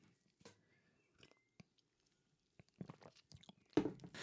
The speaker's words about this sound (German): Und ähm, ja, ich habe es eben tatsächlich für so einen kurzen Flashback geschafft, mir mit diesem Tee dieses Gefühl wieder zurückzuholen. Und deshalb werde ich mir jetzt auch erst gleich nochmal so einen Schluck reinpfeifen